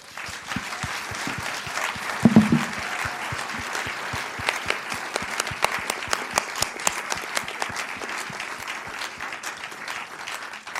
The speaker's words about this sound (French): Mesdames et messieurs, je vous demande avec moi d'applaudir nos invités.